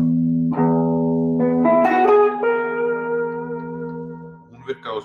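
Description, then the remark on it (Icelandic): A low bass note rings steadily on guitar as a drone for about five seconds, while higher notes in a Lydian mode are picked over it, bright and overlapping, before fading near the end. “Það var yfirleitt þá lætt ég bassa nótu lifa”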